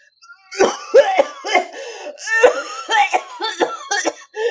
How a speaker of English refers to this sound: just cough it out. Just cough it out.